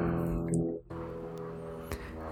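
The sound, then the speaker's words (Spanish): A small propeller plane drones steadily as it flies over a house, its engine humming loud and continuous with a buzzing, harmonic tone that holds for a couple of seconds, with no one speaking. “Ay, disculpen el ruido, tenemos una avioneta muy particular que le gusta sobrevolar la casa, nos está cuidando continuamente.”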